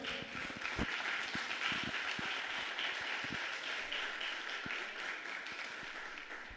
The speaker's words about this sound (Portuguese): Deus está aqui ou não está? Aplauda o Senhor nessa noite, gente.